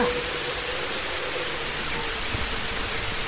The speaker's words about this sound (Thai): แล้วก็มีเสียงฝนตกอยู่ครู่หนึ่ง ฟ้าแลบแปลกๆบทำให้เกิดแสงไฟสีขาววิ่งพ่านไปทั่วทั้งท้องฟ้าสีดำนั้น ในที่สุดฝนก็ตกกระหน่ำลงสู่พื้นดินราวกับฟ้ารั่ว